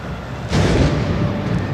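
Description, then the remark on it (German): A sudden loud bang booms through the Stade de France 16 minutes into a football match between France and the world champions, rolling away in a long echo over the steady murmur of a big crowd. “Doch nur 16 Minuten später knallt es plötzlich.”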